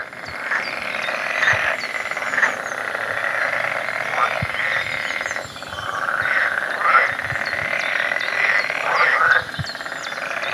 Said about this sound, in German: Na? Wer hat's erkannt? genau, Frösche, ein Froschkonzert.